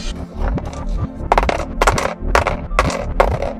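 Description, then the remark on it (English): Sixty copper coins clink and jingle as they are handed over, in a quick run of bright metallic bursts, roughly every half second, over a steady low hum in the background. No one speaks. “Sixty copper coins to Nim.”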